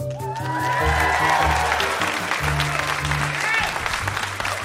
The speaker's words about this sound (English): All right, as you uh, listening at home or in your devices wired to everyone's head, you can hear that we have a fantastic live audience here in Toronto, Canada, at the Hot Docs Theatre. Let's hear it from the audience to everybody listening at home.